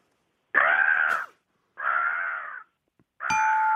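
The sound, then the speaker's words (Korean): A person imitates a crow with three long, harsh, raspy caws, each lasting most of a second, with short pauses between them. The voice is loud and nasal, with no other talking. “까마귀 소리 내볼게요.”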